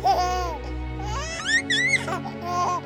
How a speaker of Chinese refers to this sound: 宝宝的嘴里咿咿呀呀的发出了声音，开心的抬起手摸着大熊油亮亮的鼻子。